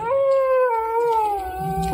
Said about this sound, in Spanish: entre aullidos de coyotes, negrura y tristeza de las callecitas del pueblo